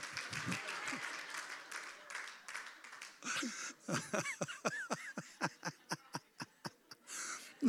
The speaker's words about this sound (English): Them kids are worshiping down there. Praise the Lord.